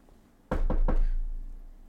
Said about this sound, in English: It's going to be absolutely bonkers the potential that this vintage will have if, knock on wood,